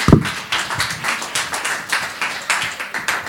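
Audience applause with a steady, regular clapping rhythm, about three claps per second, moderately loud and without any voices over it.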